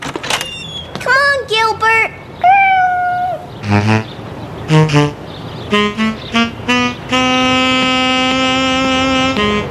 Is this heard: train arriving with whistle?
no